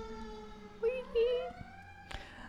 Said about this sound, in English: Sorry, sirens going by.